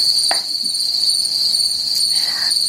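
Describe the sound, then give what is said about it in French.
A steady, high-pitched chorus of crickets chirping continuously throughout, played as a jingle, fairly loud, with a couple of faint brief sounds underneath and no voices. “Tu remettras les, grillons hein, juste après”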